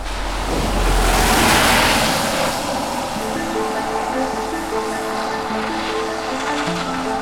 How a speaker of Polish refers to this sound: Jesteśmy na granicy wsi Trześcianka. Za chwilkę się przeniesiemy w inne miejsce, bo sporo samochodów, a jak przejeżdżają, to hałas straszny.